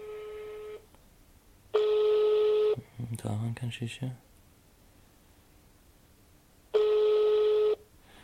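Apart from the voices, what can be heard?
telephone call tone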